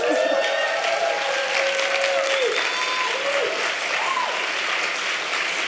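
A large live audience applauds in the Sala Julián Carrillo of Radio UNAM during a live-broadcast concert, the clapping dense, loud and steady throughout, with a few whoops and cheers rising above it.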